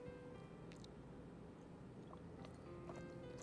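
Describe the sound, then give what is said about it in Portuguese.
Soft sounds of someone sipping and swallowing water, with a few faint wet mouth clicks over a low, steady background hum and no talking. “um golinho de água aqui.”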